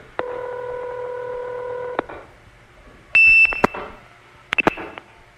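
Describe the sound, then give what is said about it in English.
Telephone trunk supervision handshake tones (off hook, on hook) on a call routed over a trunk from New York to a distant 4A switch: a steady humming tone for about two seconds, then a loud, high-pitched tone burst followed by a couple of short answering chirps, clear with no talking. “That's the supervision handshake, off hook, on hook.”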